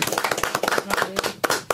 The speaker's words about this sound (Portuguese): E vamos terminar com uma salva de palmas.